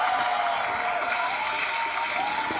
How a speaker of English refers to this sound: Oh well, that's that's another applause. I think. Come on, studio audience.